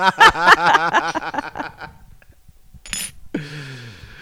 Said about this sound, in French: tente d'ouvrir cette bouteille